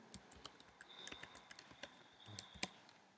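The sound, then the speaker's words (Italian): Rapid, irregular keystrokes on a computer keyboard, fairly quiet, typing a video title into a video site's search field, with a faint high-pitched electronic tone sounding behind some of the clicks and no talking. “Come primo esempio voglio scaricare un video, pertanto digiterò il titolo del video.”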